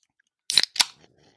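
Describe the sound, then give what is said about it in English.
A Bang energy drink can being opened: a sharp metallic crack of the tab, then a second quick burst of fizzing hiss that fades fast, with no talking. “I gotta open a bang.”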